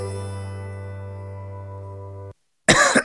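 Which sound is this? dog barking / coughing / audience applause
coughing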